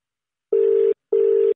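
A phone line's ringback tone on an outgoing call just dialed: two short, steady electronic buzzes in quick succession, clear, the classic double-ring pattern of a call waiting to be answered, with no voices.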